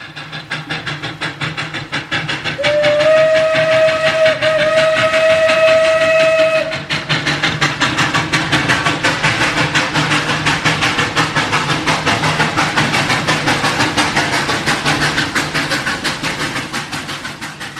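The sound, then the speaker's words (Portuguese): A train rumbles past, a long steady whistle sounding for a few seconds early on, then the rhythmic clatter of wheels over rail joints continuing loudly to the end. “Eu penso, penso e escrevo no roteiro trem. E aparece som de trem.”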